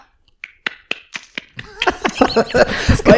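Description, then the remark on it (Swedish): Five light, sharp hand claps at an uneven, slow pace, followed by more scattered claps mixed with voices and laughter. “Han sitter och, vad är det för jävla klapp du har?”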